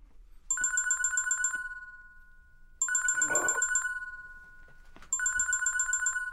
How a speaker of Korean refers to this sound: 아, 진짜. 누가 이 시간에 전화질이야? 현재 시각 저녁 8시 11분. 누군가한테 전화를 걸기에 딱히 미안할 시간은 아니다.